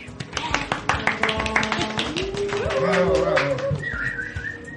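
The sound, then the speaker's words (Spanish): Recorded crowd applause played at the opening of a show's third season in February 2016, with dense, steady clapping throughout, mixed with whooping voices and shrill whistles, including a sustained high whistle near the end. “Son aplausos grabados.”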